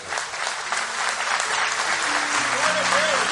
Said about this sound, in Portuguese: Pode aplaudir a ele.